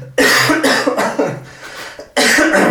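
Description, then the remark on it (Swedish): A loud coughing fit: several harsh coughs in quick succession, a brief pause, then one more forceful cough. No speech. “Nu måste jag ta, du får ta det bara, jag måste han hosta.”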